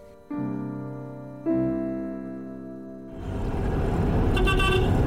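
Two long, loud car horn blasts sound one after the other, followed by a swell of busy traffic noise with engines rumbling and more horns beeping in the background.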